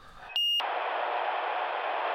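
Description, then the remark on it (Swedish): A single short, loud electronic phone tone beeps once, then gives way to a steady, loud hiss of static. No one speaks. It is an incoming call from Turkish broadcaster TRT asking for a comment on the election result. “Vem är det som ringer?”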